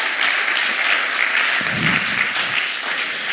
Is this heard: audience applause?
yes